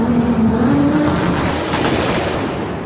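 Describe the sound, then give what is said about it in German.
A car engine is started with the ignition and roars loudly, its pitch climbing slightly as it revs, holding a steady, throaty drone throughout with no one talking. “Gib Gas, mal die Leute warten doch. Zündung!”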